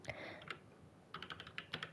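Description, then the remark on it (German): Crisp typing on a computer keyboard: bursts of quick key clicks, a few scattered strokes early, then a denser run of rapid taps toward the end, with no one talking. “Ey, meine Tastatur ja. ist aber auch so geil.”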